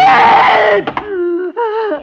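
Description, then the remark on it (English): An old woman screams in terror as she is being murdered, a loud, harsh cry that breaks off and falls into a wavering, drawn-out wail of two quavering moans. No one speaks. “Please, no screaming, Auntie.”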